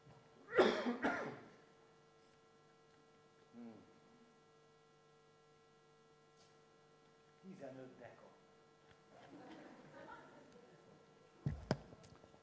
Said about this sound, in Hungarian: Arról jutott eszembe, hogy mindjárt köhögni fogok, és innom kéne.